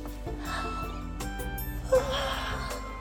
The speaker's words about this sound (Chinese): 好夸张的大哈欠！老鼠说：“你这个小不点儿，一大早就困成这样啦。”